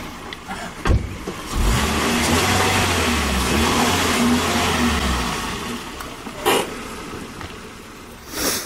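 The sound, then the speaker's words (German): A car engine starts with a thump, then revs hard in a loud, sustained roar for several seconds before the car speeds off and the sound fades, followed by a couple of sharp knocks. “Da hat die Handbremse gelitten.”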